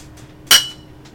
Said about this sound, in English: Glasses clinking. People glug, glug, glug, glug, glug, glug, glug, us drinking. That's going to be, uh, they're going to take that clink and put it in like a Microsoft soundbite.